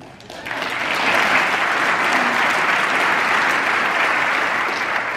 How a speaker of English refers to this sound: If this Congress sends me a new sanctions bill now that threatens to derail these talks, I will veto it. Oh. Oh, that's getting applause.